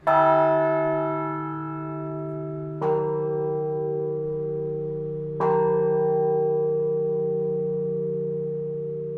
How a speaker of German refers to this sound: Das waren zwei Glocken, die jetzt hier gerade auf der Christuskirche geläutet haben.